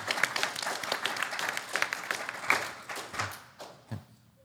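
An audience claps in dense, irregular bursts that thin out toward the end, leaving a few scattered, sharper claps as the applause fades.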